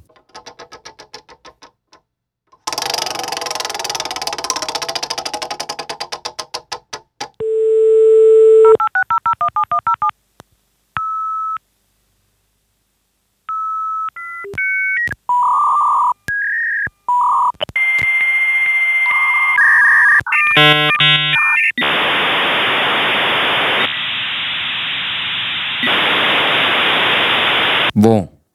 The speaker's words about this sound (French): Alors, là, on n'est pas loin du téléphone, mais qu'est-ce que c'est que tout ce bruit assez euh, agaçant Un modem 56K Ah, un modem 56K.